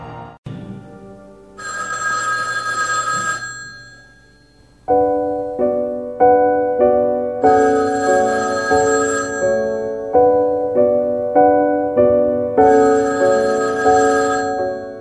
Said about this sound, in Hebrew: הטלפון בדירתו הצנועה של הפרופסור ישעיהו ליבוביץ' ברחוב אוסישקין בירושלים צלצל כמה פעמים